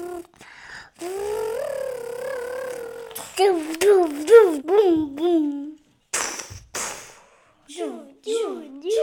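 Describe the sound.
A child's voice makes playful sound effects for toys, a wavering drone followed by a run of rising, swooping whoops and chirps, fairly loud.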